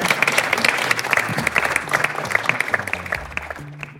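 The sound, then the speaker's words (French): An audience claps steadily together for the speaker at the close of a conference, a dense, lively patter of many hands that holds for a few seconds and then begins to thin out near the end. “On applaudit Yann.”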